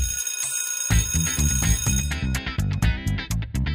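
A bell rings out loud and continuously, starting after a brief quiet moment, with a bright metallic clang that then breaks into rapid, pulsing strikes toward the end. No voices.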